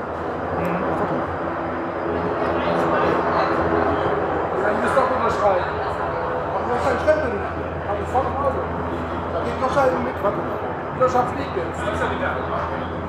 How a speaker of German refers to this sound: Warte mal ja. eben mal kurz, der, der Hubschrauber macht gerade Krach.